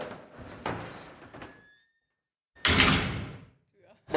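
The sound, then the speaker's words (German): A heavy metal prison cell door squeals and grinds as it swings, then after a short pause slams shut with a loud, booming clang that rings briefly before fading. “Mach mal die Tür richtig schön zu, das hört man, hört man so schön.”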